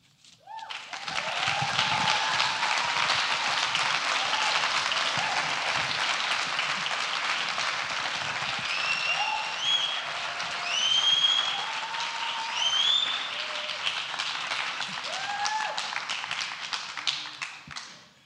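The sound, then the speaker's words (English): A large audience applauds steadily for around seventeen seconds, a dense, sustained wash of clapping with scattered whistles and cheers rising over it before it fades out. “It sounds like there's some friends of the earth out there.”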